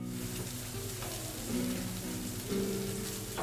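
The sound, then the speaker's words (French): Food crackles and sizzles steadily in a hot pan in a small kitchen, a dense hiss of popping fat with a few low tonal hums underneath, no voices present. “Ça crépite, ça cuit, ça brûle, ça.”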